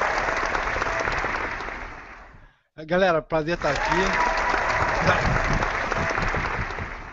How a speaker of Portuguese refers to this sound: Tem sempre uma plateia desagradável para aplaudir o cara, enquanto o cara quer falar, a gente entende isso.